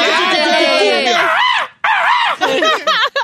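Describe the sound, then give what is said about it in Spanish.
A loud, high-pitched vocal shout imitating a cumbia-style cry, starting with a long wavering yell and breaking into a few shorter warbling whoops. “nomás me sabía el gritito.”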